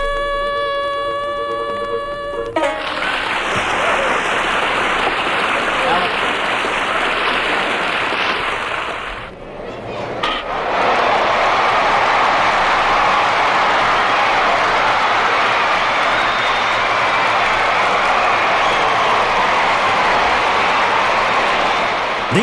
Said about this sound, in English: These are the familiar sounds that are heard every day from April to October. The game is called baseball.